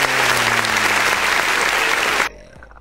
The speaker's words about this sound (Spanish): Ya te puse aplausos, ¿eh, güey? Ah, perfecto. Sí, claro. Nada más que no los escuchas porque no estás escuchando la, la, la roli …, pero ya te tuviste aplausos.